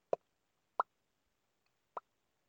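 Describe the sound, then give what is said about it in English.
Three sharp mouth pops made with the lips, imitating a cartoon pop effect, spaced unevenly with a longer pause before the last one, fairly loud with no talking. “It, it was like um, it, it could have had one of those cartoon sound effects, like pop, pop, like a, a pop, like that.”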